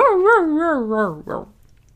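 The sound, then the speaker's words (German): A human voice mimics a dog's whine: a high, wavering nasal tone that wobbles up and down several times and slides lower over about a second, followed by a short breathy sound. “Das wiegelt sich so ein bisschen hoch und irgendwann fängt der Hund an mit”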